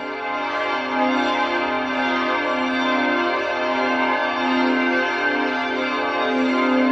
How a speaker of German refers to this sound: Was ihr hier hört, das sind die Chorglocken des Stifts, ein gewaltiges Ensemble. Sie läuten sechsmal am Tag.